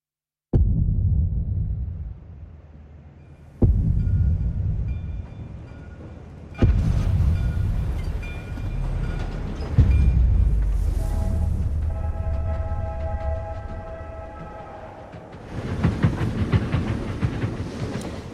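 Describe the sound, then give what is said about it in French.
Rumbling train sounds in the trailer for Kenneth Branagh's new film adaptation of Murder on the Orient Express (Le Crime de l'Orient Express), heavy low rolling noise broken by sharp cuts and surges, with a hissing steam-like burst and brief high whistle-like tones, no one speaking. “bien, on aura entendu des passionnants bruits de train.”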